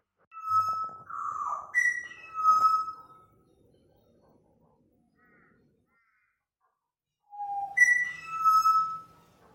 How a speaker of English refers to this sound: he's from Australia. And he has sent us a sound clip of the butcher birds that live just across the course at their house. Uh, he said they sit on the balcony and sing, followed by a lot of smiley faces.